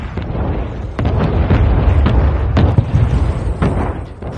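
Video game footage of anti-ship missiles striking two US Navy ships at night near the coast: a series of heavy explosions, several deep booms bursting over a continuous low rumble, loud, with no voices.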